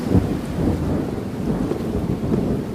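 Deep, rolling thunder rumbles steadily for a few seconds, loud, with a constant hiss of rain underneath and no voices.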